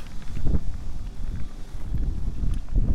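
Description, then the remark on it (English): Outdoor wind in Oklahoma buffets the microphone in a steady, low rumbling roar, swelling into heavier gusts now and then, with faint thumps mixed in and no voices. “I don't feel like, even though I live in Oklahoma, I don't actually feel like it's usually as windy as it is anytime I decide to go outside and record.”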